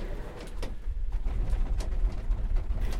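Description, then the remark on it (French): Cable car gondola doors at a spring ski area in the mountains slide shut with a series of short mechanical clacks and rattles over a steady low rumble of machinery, no voices present. “Les portes de la télécabine se ferment.”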